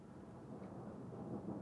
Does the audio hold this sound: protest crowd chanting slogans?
no